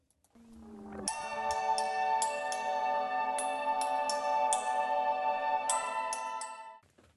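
A song plays on the radio station Studentradion 98,9 in Uppsala, with a sustained, organ-like chord held steady while bright accents strike at a loose, regular pace, then the music fades out near the end. No voices.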